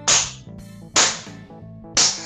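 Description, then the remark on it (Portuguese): Three sharp, loud open-hand slaps are demonstrated about a second apart, each a crisp smack with a brief ringing tail over a faint low background hum. “Só deram um tapão de mão aberta, assim, ó.”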